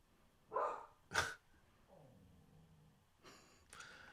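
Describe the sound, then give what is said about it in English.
A dog gives two sharp, quick barks, then a low rumbling growl, followed by another rough, huffing burst of vocalizing, reacting to another dog walking by. No one speaks. “He's so expressive. He goes from growling to me like, "What to do, Dad.”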